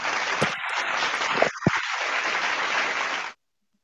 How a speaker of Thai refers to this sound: ช่วงต่อไปเนี่ยเป็นช่วงการทำตลาดผ่านโซเชียลมีเดีย นี่นะคะ พอสอนนี้นะคะ ในชัยนาทไม่มีใครฮอตเท่าคนนี้แล้วนะคะ ขอเสียงปรบมือต้อนรับแฮตตินัม